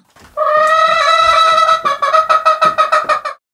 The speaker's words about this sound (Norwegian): det var en ekte høne! Det var ikke noe pipeleke!